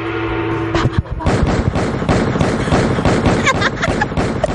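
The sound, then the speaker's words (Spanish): Loud gunshot sound effects erupt after about a second, a dense rapid volley of cracks and bangs that keeps firing without pause until the end. “Necesito como un efecto unos tiros.”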